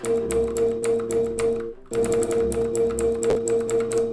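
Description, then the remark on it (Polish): A video game cue that plays on reaching the edge of the map while moving with the arrow keys, marking terrain the character cannot see: a steady, buzzing tone laced with rapid mechanical clicking, loud, briefly cutting out near the middle before resuming the same pattern. No one speaks. “Ten dźwięk oznacza, że tam może coś być, że tam jakby jest teren, ale my nie widzimy już, nasza postać nie widzi tak dobrze, co na tym terenie się znajduje.”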